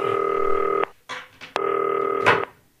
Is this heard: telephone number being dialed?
yes